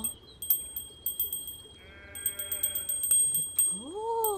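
A small bell jangles in quick, uneven bursts of strikes, its thin metallic ring hanging on between shakes, while a bleating, animal-like tone and a rising squeal sound partway through.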